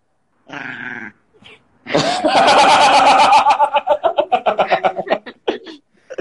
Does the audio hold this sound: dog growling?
yes